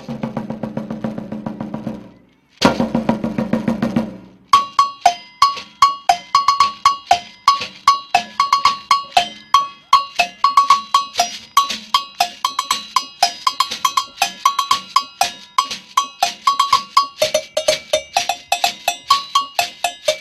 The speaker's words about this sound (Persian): اما یه سری فرهنگ ها هم تبلهای کاملا متفاوتی رو ساختن مثل تبل بنایی ها که اسمش هست فونتون فرام